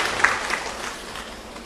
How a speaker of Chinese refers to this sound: 掌声，有请我们的郑世林院士到台上来。